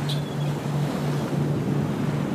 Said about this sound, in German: Wie wunderschön das Meer doch ist, wie sich das Wasser immer wieder vor und zurück bewegt.